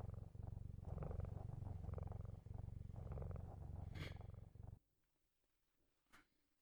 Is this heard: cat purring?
yes